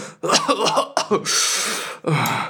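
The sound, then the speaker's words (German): A voice imitates coughing: a few short, harsh coughs in quick succession, then a longer raspy, breathy hack and one more cough at the end, fairly loud. “und du hörst immer nur Stinkt so husten.”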